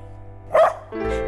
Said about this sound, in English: That's my dog Skip.